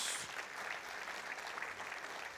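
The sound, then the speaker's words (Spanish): An audience applauds the Lord, clapping steadily, a dense wash of many hands at moderate volume, continuous throughout with no voices standing out. “Yo le daría un aplauso al Señor en el día de hoy si tú eres uno de esos.”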